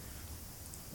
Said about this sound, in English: I don't know if you can hear but it's storming outside.